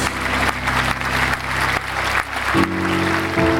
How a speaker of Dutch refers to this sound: Ja, hartelijk applaus ook trouwens.